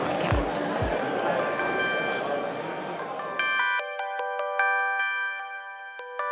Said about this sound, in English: our other delivering alpha guests are filing in, getting coffee, setting up for a day jam packed with Wall Street legends, and naturally, their tips for earning alpha.